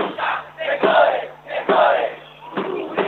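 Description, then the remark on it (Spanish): A large protest crowd shouts and chants together, the massed voices swelling in loud, rhythmic surges roughly every second, dense and continuous with no single voice standing out, as protesters stand face to face with security forces at the base of a bridge. “no sé si se escucha un poco, pero ya están cara a cara en la base.”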